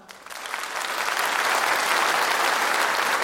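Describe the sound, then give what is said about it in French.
Audience applause swells up over the first second and then holds steady, a dense, continuous patter of many hands clapping at moderate loudness with no talking, as the audience applauds to show they keep their alarm clock on their mobile phone. “Par, applaudissement, ceux qui ont le réveil matin sur leur portable.”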